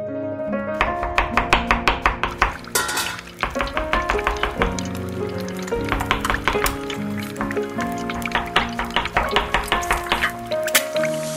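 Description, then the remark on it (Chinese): Rapid bursts of knife chopping on a board as a mother cooks the Chinese New Year's Eve dinner, quick sharp taps in runs with short pauses, over a steady tonal backdrop and a faint sound of pouring liquid. “妈妈好忙，忙着做菜。”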